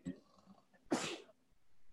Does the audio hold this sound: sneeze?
yes